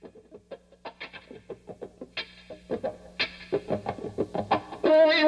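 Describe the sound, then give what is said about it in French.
A distorted electric guitar plays a choppy, rhythmic riff through a wah-wah pedal, with a quacking sweep on each note, building to a louder sustained chord at the end. No voices. “Et surtout, on entend bien la pédale wah-wah.”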